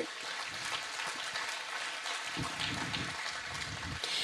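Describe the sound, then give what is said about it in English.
An audience at a church gathering applauds a group of people seated there, a dense, sustained wash of clapping that stays fairly loud and even for about four seconds, with no voices over it. “Can we just give them give them a round of applause”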